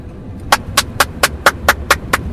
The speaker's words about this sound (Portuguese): Então bate uma palma aí só pra sincar